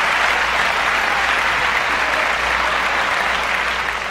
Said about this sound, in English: I'm gonna add in another thunderous applause.